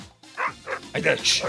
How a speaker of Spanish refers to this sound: va a salir, va a salir, abre la puerta, va a salir al patio y se va a escuchar el sonido de su perro ladrando.